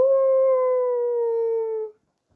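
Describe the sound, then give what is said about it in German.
A beagle lets out one long, loud howl from deep in a forest at night under a crescent moon, holding a steady pitch and sliding slightly downward for about two seconds before cutting off, leaving silence. “in den Nächten genau wie in dieser, in denen eine Mondsichel am Himmel stand, hörte er tief aus dem Wald einen Biegel rufen.”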